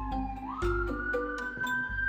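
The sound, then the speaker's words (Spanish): An alarm siren wails with a steady, piercing tone that climbs slightly in pitch early on and then holds level, sounding loudly throughout alongside scattered thumps and clatter. “Se escucha, se escucha la alarma, ya, la alarma ahí, poderosa, elocuente, es el momento, el momento, el momento, hoy el momento.”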